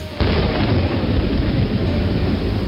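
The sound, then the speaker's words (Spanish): A violent thunderstorm at night at a farm roars with heavy rain and deep rumbling thunder, a loud, dense wash of noise that starts abruptly and holds steady throughout, with no voices. “Unos pocos días más tarde, el granjero y su esposa fueron despertados en la noche por una violenta tormenta.”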